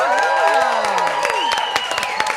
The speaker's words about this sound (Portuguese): Então, senhoras e senhores, eu queria que vocês me ajudassem a receber com uma forte salva de palmas as nossas convidadas maravilhosas, a Fernanda e a Laís. Fernanda Gentil e Laís Souza, uma salva de palmas.